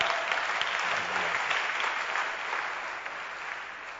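An audience applauds steadily, a dense wash of many hands clapping that holds at an even level for several seconds, with no distinct voices rising above it.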